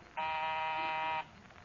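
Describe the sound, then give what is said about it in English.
A doorbell rings as a single steady electric buzz lasting about a second, loud and harsh with a rich, even tone, then cuts off abruptly, leaving quiet behind it. “Don't go every time that bell rings you up on the ladder.”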